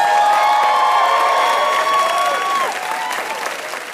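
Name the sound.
studio audience applause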